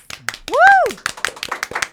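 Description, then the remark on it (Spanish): An audience claps in a quick, irregular patter of sharp hand slaps, while one voice lets out a rising-then-falling whoop over the applause. “Yo quiero que el público que tenemos aquí le dé un fuerte aplauso”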